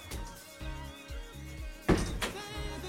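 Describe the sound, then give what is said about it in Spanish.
A female house cat meows several times in short, tonal cries, fairly quiet, with a soft thump partway through and no one talking. “Tenemos un mensaje por interno. Ah. no, era mi gata.”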